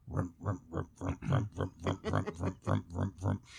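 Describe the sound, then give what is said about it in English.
A voice mimics a video game bowling ball rolling down the lane, a game once played on a small black-and-white TV: a steady run of about thirteen quick, evenly spaced guttural pulses lasting a few seconds. “The the little ball would go down the go down the lane and would go”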